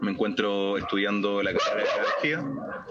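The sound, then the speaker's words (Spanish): The speaker's dog Roque barks in a few drawn-out, yelping bursts while a person keeps talking over it. “ese es mi perro, se llama Roque, probablemente lo van a escuchar”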